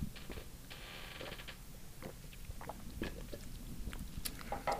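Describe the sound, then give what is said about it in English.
Wet mouth noises of someone sipping a bomb shot drink made with light beer: a run of sips and gulps with small clicks and swallows over a low background rumble, no talking. “Oh, I thought we were supposed to do it in one sip.”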